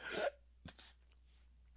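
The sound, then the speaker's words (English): A sharp, breathy hiccup from a person who drank too much carbonated Red Bull, followed by a fainter, shorter catch of breath, then quiet. No one speaks. “And when I do, the carbonation really gives me the hiccups and the burpees, and I'm very sorry for that.”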